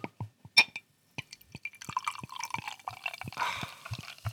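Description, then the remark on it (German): A Helles beer being poured from a bottle into a glass: a few scattered drips and clinks, then a steady gurgling pour with a rising fizz of foam. No voices. “Halt's ans Mikrofon, ASMR.”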